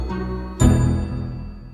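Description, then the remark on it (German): A town hall glockenspiel chimes on the Alter Markt in Cologne's city centre, with a soft tone already ringing before one loud bell strike that rings on and slowly fades. The sound is clear and resonant, with no voices. “das Glockenspiel ging auch noch los.”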